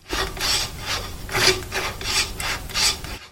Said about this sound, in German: dass auf dem Sitz ganz schön Kalk ist und den durch Hin- und Herdrehen des Griffes fräse ich den herunter. So, das müsste eigentlich schon genügen.